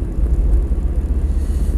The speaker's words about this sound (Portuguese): Catano, já é para aí o sexto caminhão de transporte de animais que passa por mim.